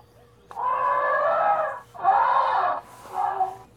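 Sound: elephant trumpeting call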